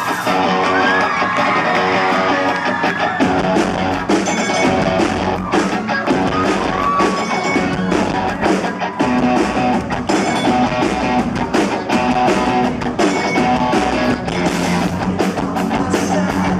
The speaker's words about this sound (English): well, here it sounds more like a bell, but other videos it sounded more like a cowbell. Um, or they actually sounds like uh, Coke bottles in this one. A little bit, sounds yeah. Sounds more like glass or metallic.